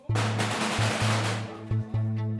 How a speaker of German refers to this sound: Nach der Explosion feuert der erste ins dunkle Treppenhaus. Stiefel poltern die Betontreppe nach oben. Dann fallen erneut Schüsse. Ein Gegner hat sich im Stockwerk darüber verschanzt.